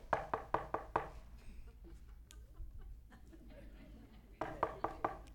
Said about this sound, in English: Come on, open the door. He continued knocking. And when they finally opened the door and saw him, they were amazed.